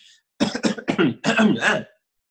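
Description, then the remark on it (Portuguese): A person clears their throat in a quick series of harsh, raspy bursts, about five rough pulses running together for over a second, fairly loud against a silent background. “Olha só, o pigarro nada mais é que um catarrinho que fica ali, você não consegue tirar, você fica assim.”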